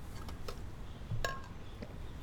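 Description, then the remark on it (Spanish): A glass clinks once as someone drinks water, a bright, sharp tap standing out from a low, muffled background, with a few faint softer clicks around it and no talking. “Voy a tomar agua.”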